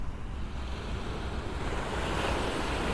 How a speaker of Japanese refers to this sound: ただいま湘南の海岸から波の音をお届けしております